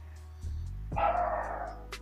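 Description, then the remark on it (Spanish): A dog barks a couple of times at night, somewhat muffled, with one longer, louder bark in the middle and no one talking. “Uh, se escuchó el perro, ¿no? Un poco.”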